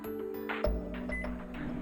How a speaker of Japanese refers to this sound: お、エアコンがついたぞ。治ったんだな。